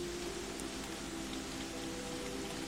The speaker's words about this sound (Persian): میخوایم با هم قدمی بزنیم بر زیر باران که این باران رحمت های خداوند هست